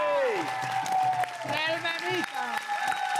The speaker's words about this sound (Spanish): Un aplauso, por favor.